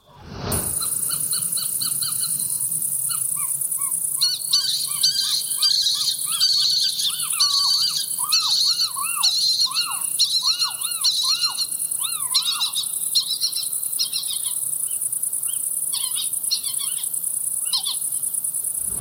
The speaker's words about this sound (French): Mystère résolu, je comprends pourquoi maintenant les habitants racontaient que cette maison serait hantée avec un énorme boucan. Hein. Une famille de chevêches d'Atina, ça peut, euh, comment dire, euh, être très bruyant.